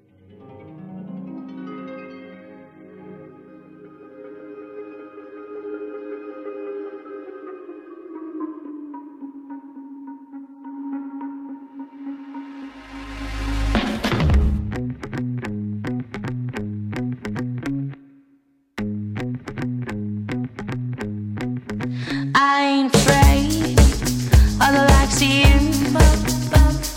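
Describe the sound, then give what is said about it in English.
A song from an album plays on its own, opening with soft, wavering synth tones before a heavy beat and bass crash in, drop out for a moment, then return louder and fuller. “And my favourite one is this one. It's called ….”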